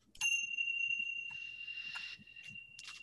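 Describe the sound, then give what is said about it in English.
A single meditation bell is struck once to begin a short meditation, its clear high tone ringing out and lingering steadily for several seconds as it slowly fades, with faint soft bumps in the background. “And uh, Let's set the bell be an invitation to begin.”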